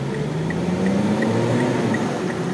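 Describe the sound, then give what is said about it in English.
Steady interior road noise from a car driving in traffic on the way to the airport as the driver switches lanes, a broad continuous rumble and hum with a rising engine tone and faint regular ticking, like a turn signal, with no talking. “Hold on, I'm switching lanes.”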